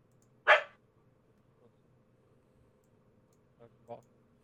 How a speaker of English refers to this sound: I think your dog. I think your dog has objected there.